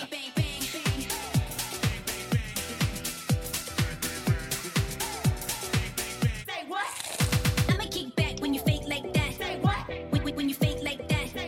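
An upbeat urban pop track in an audio advertising spot for Pickers, a McCain group brand, with a punchy, steady beat and bright layered synths, loud, with a sweeping riser about halfway through before the groove returns.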